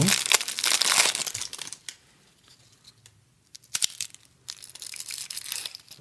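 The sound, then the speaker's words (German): Crinkly plastic wrapper of a fortune cookie being torn open and crumpled, fairly loud, in two bursts of rustling separated by a quieter pause with a few small crackles. “Darf ich den aufmachen und sagen, was drinsteht?”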